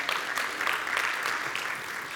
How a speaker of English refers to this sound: Anybody grateful for that? A God, yeah, come on, you can give him a great round of applause.